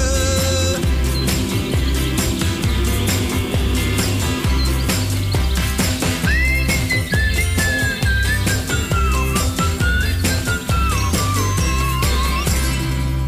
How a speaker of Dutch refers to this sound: Fluiten. Even lekker fluiten. Even lekker fluiten. Fluiten. Door je lippen wat te tuiten.